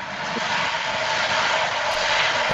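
A car driving past as a loud, steady rushing roar that fills the whole moment without fading, with no voices heard.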